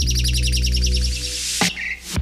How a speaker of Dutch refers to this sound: U hoort, beste luisteraar, de vogeltjes fluiten. Dat is omdat dit een zomeraflevering is van de podcast van de Universiteit van Vlaanderen die we opnemen in zomerbar Brial.